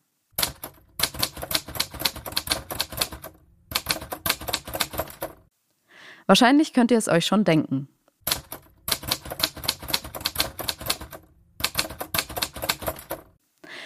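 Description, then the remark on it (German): Rapid mechanical typewriter keystrokes clatter in several bursts, with a short pause where a voice speaks briefly before the typing resumes. “Genau, es ist die Schreibmaschine.”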